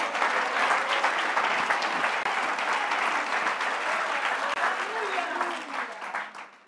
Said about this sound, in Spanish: Cuando da un aplauso al Señor?